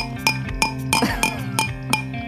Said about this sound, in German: Doch, ich hab was. Klar. Ah, es klingt wieder nach Schnapsglas auf Stein.